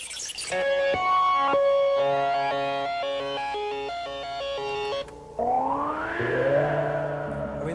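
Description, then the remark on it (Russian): Loud, buzzy analog synthesizer tones with effects from a Roland Jupiter-8, played by a keyboardist to show its unusual sounds, first stepping through a quick sequence of bright notes, then a brief cut into a swooping, rising and falling pitch glide. No voices. “В одном из видео про группу 1982 года … как раз появляется напротив своего Юпитера и показывает, какие необычные звуки он может на нем извлекать.”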